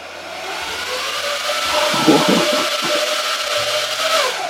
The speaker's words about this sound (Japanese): これちょっとねマイクから遠ざけるんですけど、うん、ちょっと聞いてもらっていいですかドライヤー音。ドライヤーの音。うん、お願いします。